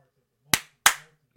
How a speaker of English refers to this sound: Bob wanted me to clap.